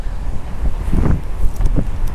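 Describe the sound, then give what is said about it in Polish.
Wind buffets the microphone in uneven low rumbling gusts, a broad roar that swells and fades over a couple of seconds. “to szatan wiatr zesłał.”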